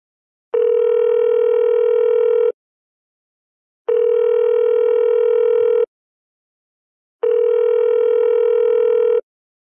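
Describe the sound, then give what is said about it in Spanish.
A telephone tone rings out three times as a call is placed for an interview, each steady buzzing burst lasting about two seconds with short silent pauses between, loud and clear with no voices. “Vamos a llamar entonces un momentico a Subvano”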